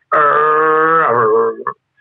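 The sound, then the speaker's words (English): A voice imitates a motorcycle engine with a single sustained, buzzing vroom that holds steady, then drops in pitch before cutting off, loud, lasting about a second and a half. “Legato is like a motorcycle sound,”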